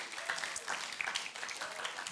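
An audience applauds the worship team steadily, a dense wash of many hands clapping at a moderate volume with no talking over it, sustained evenly through the short stretch.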